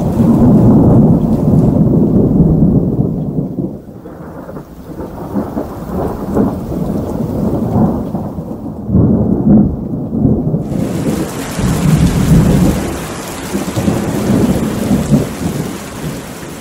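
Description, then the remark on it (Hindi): Heavy, steady torrential downpour roars with deep rolling rumbles of thunder underneath, and the hiss of rain grows brighter and fuller partway through. No voices. “मूसलाधार बारिश हो रही थी और वो कमरे में बैठा जल थल देख रहा था बाहर बहुत बड़ा लॉन था जिसमें दो दरख्त थे उनके सब्ज पत्ते बारिश में नहा रहे थे”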